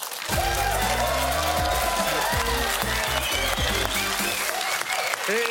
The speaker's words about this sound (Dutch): Vanavond deelt hij met ons zijn passie voor fladderende vlinders, maar ook voor koele kikkers en protser pauwen. Geef hem een beestig applaus.